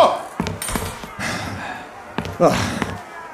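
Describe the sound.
A door bangs shut amid a few sharp thuds and knocks, with muffled voices and movement in the background.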